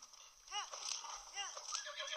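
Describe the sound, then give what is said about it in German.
A horse being ridden whinnies twice, short rising-and-falling calls about a second apart, with light clip-clopping hooves and a steady hissing background throughout. “Ach, Junge, mein Pferd. Ich hab dich doch so lieb.”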